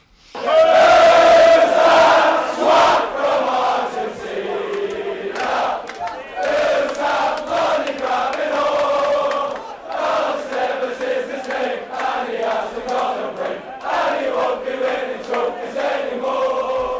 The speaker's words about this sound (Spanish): crearon una canción que suena a menudo en el Trafford